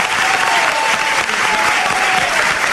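Steady, dense applause from a crowd, a continuous wash of clapping hands at an even loudness throughout, with a faint tonal hum running underneath.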